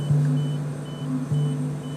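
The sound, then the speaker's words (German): A CT scanner runs during a follow-up lung scan, with a steady, loud mechanical hum and a faint high whine, swelling briefly twice as it works. No one speaks. “Das, äh, was ihr gerade gehört habt, das war vor ein paar Wochen bei einem Nachsorgetermin von meiner Lunge.”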